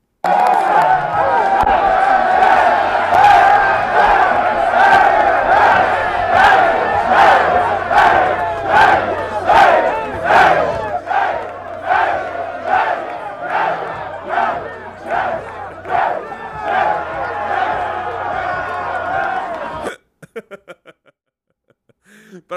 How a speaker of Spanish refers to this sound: pero creo que de John Harbaugh es más significativo el video que vamos a ver en estos momentos acerca de la victoria después de el fin de semana pasado cuando derrotaron a los Tejanos. Este era el, el festejo.